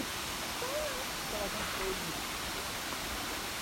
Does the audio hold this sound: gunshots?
no